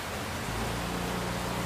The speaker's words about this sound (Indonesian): hujannya nama deras aja nih nama deras kayak ngobrol-ngobrol kayak gini paling enak emang di luar sambil menikmati alam langsung berinteraksi sama alam paling enak nih